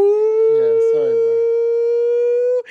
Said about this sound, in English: That, for those of you who don't know, is the nonsense ranking siren.